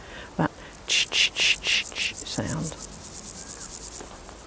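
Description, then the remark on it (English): A mottled grasshopper stridulates in a rhythmic run of buzzy pulses that start loud and spaced, then quicken and fade into a softer rapid ticking, with a brief voice sound in the background. “But we do have mottled grasshoppers here too because I can hear”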